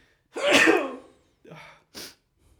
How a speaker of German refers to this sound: Und ich muss auch niesen gerade. Es kann auch sein, dass ich gegen irgendwas allergisch bin.